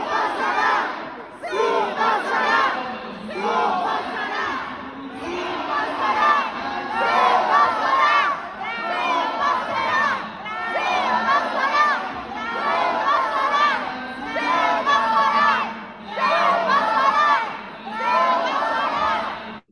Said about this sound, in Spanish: O sea, ahí estaban atrás del diputado gritando, sí pasará, no pasará, sí pasará, no pasará. Bueno, ahí están con los gritos.